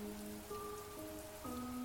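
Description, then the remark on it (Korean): Steady rain hisses outside throughout at a low, even level, with a few soft sustained tones drifting faintly over it. No one speaks. “왜냐하면 밖에선 빗소리와 함께 그녀의 흐느낌이 들렸거든요.”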